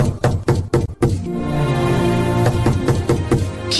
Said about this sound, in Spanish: estará tocando a nuestra puerta? No lo sé, pero voy a abrir.